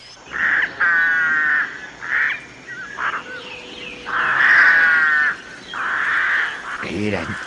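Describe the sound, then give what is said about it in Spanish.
A series of loud, shrill whistling calls from a capybara, about six strained, raspy bursts in quick succession, with no talking over them. “El capí, por el contrario, intentó cantar como antes, pero solo logró silbar así”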